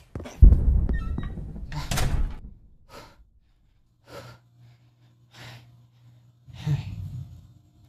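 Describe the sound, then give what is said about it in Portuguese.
A door swings shut with a heavy thud and brief rattle, followed by a few short, breathy puffs and sniffs. “Fecha a porta, fecha.”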